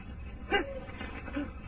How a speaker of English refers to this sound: Dogs. They got dogs after me. They're still after me. Them dogs are tracking me down.